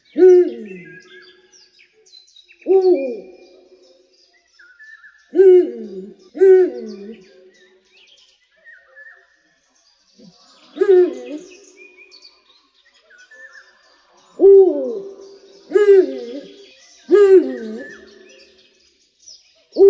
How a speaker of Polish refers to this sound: no bo przecież byliśmy na nocnym spacerze z leśnikiem i próbowaliśmy nasłuchiwać odgłosów sów nocą. Udało się, udało i jeszcze raz udało. Przede wszystkim udało nam się usłyszeć taką oto sowę.